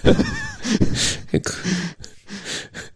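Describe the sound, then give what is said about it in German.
People make rough, gruff grunting noises like Roy Kent, a rapid series of short throaty bursts, some breathy and laugh-tinged, filling about three seconds. “Ihr grunzt wie Roy Kent.”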